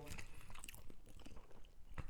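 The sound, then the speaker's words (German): Crunchy biting and chewing on the crust of a pepperoni salami pizza, with wet smacking mouth sounds and a sharp crunch near the end, fairly quiet throughout. “Du schmatzt jetzt schon auch so einen direkten Sehr Ja, voll. Ja, erstmal ein bisschen was vom Rand.”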